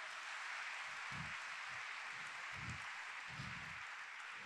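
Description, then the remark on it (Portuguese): A church audience applauding Jesus steadily, a dense, even wash of many hands clapping with no voices over it, with a few soft low thumps now and then underneath. “E em Ruanda, você pode aplaudir a Jesus, o que Jesus está fazendo?”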